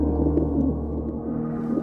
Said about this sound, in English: From the deepest wells of silence, the wood pigeon drew its bubble of sound.